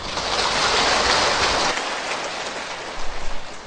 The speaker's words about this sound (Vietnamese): tràng vỗ tay đó nên được hiểu là một lời tán thán đối với người bất đắc dĩ phải làm một cái nghề mà sự giàu sang của họ đó được đông đo tính điếm bằng cái sự độc tố bệnh tật và chết chóc của con người và các chủng loại súng sinh